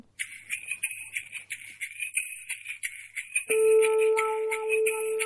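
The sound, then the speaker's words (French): A song's instrumental intro: bright, high, twinkling notes repeat in quick bursts, then steady sustained tones swell in partway through, fairly loud, with no singing or talking yet. “Il nous reste, oui, une petite seconde pour écouter, eh bien, écouter une chanson.”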